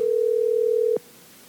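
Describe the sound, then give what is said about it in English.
A single steady electronic ring tone sounds on a phone line as a call is placed to an MLF Pro, holding for about a second before cutting off abruptly into quiet. No one speaks. “Let's see if we can get Gerald. I'm a minute late. I told him I was going to call 11:45”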